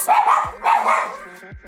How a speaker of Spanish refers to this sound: Problemas técnicos, perritos vueltos locos.